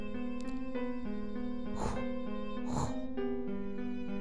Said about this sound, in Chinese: 是非常凌乱的气息声。我女朋友的打呼声还真奇怪。